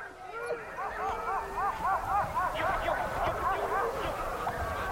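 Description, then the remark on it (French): Several sled dogs yelp, whine and bark excitedly in quick overlapping bursts, a steady chorus of high pitched whimpers and yips heard outdoors, as the dogs not chosen for the trip watch the hunters' loaded sleds set off onto the sea ice. “Les chiens qui n'ont pas été choisis pour faire partie du voyage le regardent s'en aller jalousement.”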